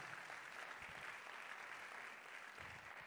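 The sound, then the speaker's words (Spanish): Sustained applause from a church audience, given to the Lord during a sermon: a steady dense wash of many hands clapping at once without pause, fairly loud and even throughout, with no voices standing out. “Den un aplauso al Señor si usted lo entiende.”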